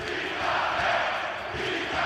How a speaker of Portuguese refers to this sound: Palmeiras sagrou-se bicampeão brasileiro esta noite. O Palmeiras empatou um gol em casa do Cruzeiro e isso foi mais do que suficiente para se tornar campeão pelo segundo ano consecutivo. No final, o povo gritava: Fica Abel!